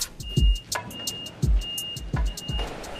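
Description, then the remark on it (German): A delivery car drives close up to a loading gate at a parcel distribution center in Karlsdorf at 5:15 a.m., its engine rumbling low with several heavy thuds, while a thin, steady high-pitched tone sounds on and off in the background. “Ja, ich fahre zu meinem Tor hin, mache die Türen auf, fahre ganz nah ran und meine Rutsche ist ungefähr einen Meter von meinem Auto entfernt.”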